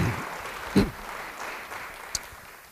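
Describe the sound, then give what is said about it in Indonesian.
A crowd claps at a speaker's request in a steady, fairly soft patter of applause, with a brief thump and a sharp click standing out partway through. “Yang setuju beri tepuk tangan bagi dia.”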